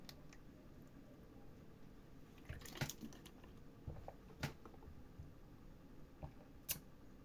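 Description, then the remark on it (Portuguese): Someone drinking water: a few soft sips, gulps and wet mouth clicks spaced irregularly over a quiet, hissy background, with no talking. “Vou tomar mais uma água aqui.”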